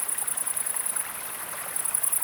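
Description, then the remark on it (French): An upland green bush-cricket stridulates in a rapid, buzzing high-pitched trill, steady, pausing briefly, on the bank of a stream at 7 pm with no wind, a very cloudy, stormy sky and 20–22 °C, over the continuous rushing babble of the stream, with other large green bush-crickets around. “La cymbalière et le ruisseau”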